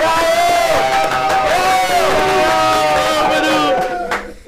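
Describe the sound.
A crowd cheers and whoops loudly, many voices overlapping in a sustained roar with applause mixed in, holding steady for about four seconds before fading out quickly at the end.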